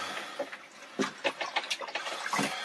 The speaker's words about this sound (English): Um, I've capsized three times, always while I've been in the cabin here. Um, initially no interest in ever capsizing again the rest of my life. But uh, it's probably going to happen. Um, bit of a sitting duck here in these huge waves.